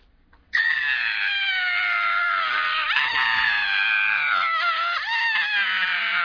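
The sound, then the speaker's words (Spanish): A woman's loud, sustained scream of fright, running unbroken for several seconds, with a slight wavering in pitch near the end. A person acting out how she screamed when someone came into the bathroom and pulled back her shower curtain. “Y ahí sí, cuando hizo eso yo grité.”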